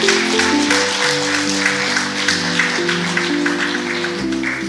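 A church audience applauds steadily for several seconds to welcome and congratulate seven people being baptized, a dense, continuous patter of many hands mixed with sustained, shifting keyboard or organ chords playing underneath.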